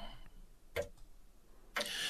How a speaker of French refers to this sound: Il ne restait que le bruit de la pluie dehors et bien sûr le tic-tac de l'horloge, parce que toute maison de grand-mère a une horloge qui fait tic-tac.